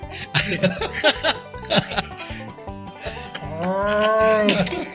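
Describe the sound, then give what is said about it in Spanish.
A long, drawn-out cow moo swells in near the end, loud, following a few seconds of choppy voices and laughter. “aquí está una pinche, vaca Al principio del episodio, güey.”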